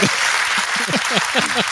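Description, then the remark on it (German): Steady audience applause, a dense wash of clapping hands that holds at an even, fairly loud level throughout, with faint murmuring voices underneath. “Ich habe die gleiche Frage nochmal gestellt und bekomme ja. dafür Applaus.”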